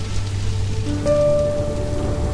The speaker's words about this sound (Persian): از بارون خوشم میاد